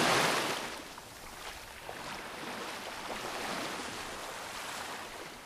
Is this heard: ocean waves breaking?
yes